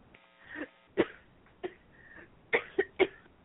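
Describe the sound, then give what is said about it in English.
A woman's coughing fit: five or so harsh coughs in irregular bursts, ending with three rapid ones in quick succession. No one speaks. “She coughs it out.”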